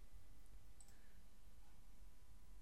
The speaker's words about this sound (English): Sorry, you probably hear me sliding my mouse around too.